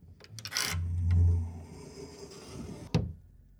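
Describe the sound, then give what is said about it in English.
A closet door slides open with a low, grinding rumble and scraping friction, ending in a sharp knock as it stops. Fairly loud, with no voices. “Just like always, I moved to the closet door and slid it to the side.”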